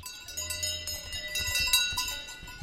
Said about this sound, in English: I'm telling you, cows suffer from the noise of their bells. One day, this will be scientifically proven. Cows. Feeling disturbed. Getting ill from the sound of bells.